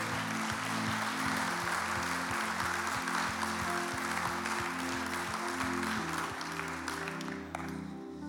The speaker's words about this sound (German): Und lasst uns heute wirklich als eine Kirche dieser Familie einen Applaus geben. Das war hervorragend.